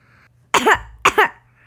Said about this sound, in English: Coughed the raccoon. Cough, c o u g h, cough 是咳嗽的意思。The raccoon was coughing. 小浣熊正在在咳嗽。